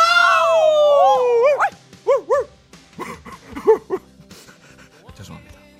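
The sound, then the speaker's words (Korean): A dog's drawn-out, wavering howl gives way to a quick run of short, yappy barks and breathy panting, moderately loud. “동네 개가 와서 짖나?”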